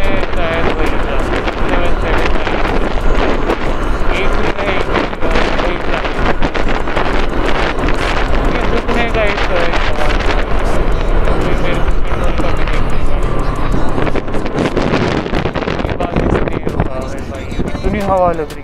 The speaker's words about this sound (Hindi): इतनी हवा लग रही इतनी हवा लग रही